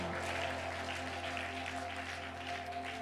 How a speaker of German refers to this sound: Lasst uns Jesus nochmal einen großen Applaus geben für das, was er tut. Amen.